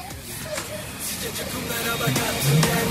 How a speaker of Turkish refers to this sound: Baba demedi ama ağlıyor. Çok güzel ağlayabiliyor. Kızım.